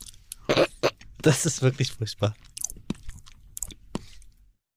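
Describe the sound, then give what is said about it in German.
Crunchy chewing with repeated wet bites and crackles, interrupted by a person speaking briefly in between mouthfuls. “dass es Menschen gibt, die können das, die flippen aus, wenn sie äh, andere Menschen essen äh, hören.”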